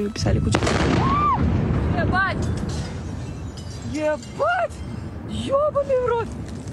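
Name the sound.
missile strike explosion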